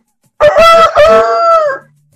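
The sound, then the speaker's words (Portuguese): A man's voice imitates a rooster crowing in one loud, drawn-out cock-a-doodle-doo, starting with choppy bursts and ending in a long sustained wail. An Atlético fan does this imitation in front of a bar full of Cruzeiro supporters. “manda aí, manda aí o, o áudio dos atleticanos imitando.”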